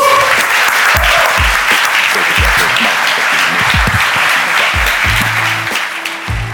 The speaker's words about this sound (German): Applaus.